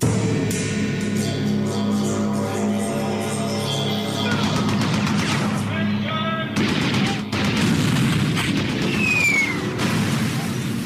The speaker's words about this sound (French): Chaque crépitement de mitrailleuse est une symphonie de terreur qui résonne dans les quartiers dits de non-droit à Port-au-Prince.